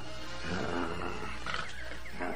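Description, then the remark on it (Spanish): A dog named Temible growls aggressively, a low, rough rumble that carries on steadily for a couple of seconds, fairly loud, with no voices over it. “Quieto, temible, quieto, quieto.”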